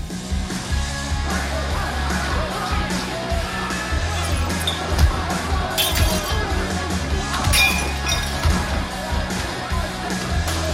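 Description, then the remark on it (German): A loud, chaotic din as about a dozen masked attackers with batons storm a bar, smashing glasses, furniture and windows while guests throw glasses, beer mugs and ashtrays; repeated sharp shattering bursts, thuds and clinks over a constant roar, with shouting mixed in. “Sie zertrümmern Gläser und Möbel, schlagen Fensterscheiben ein und greifen die Besucher an.”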